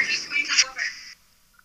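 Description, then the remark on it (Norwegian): A garbled, robotic-sounding voice of a caller phoning live into Radio Rewind from Mexico comes through the phone line, thin and distorted with choppy bursts for about a second before cutting out into near silence. “Det ringer, høres ut som han er blitt en robot.”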